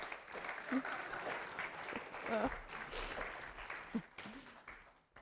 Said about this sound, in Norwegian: En applaus til dem, så kan dere få lov å sette seg.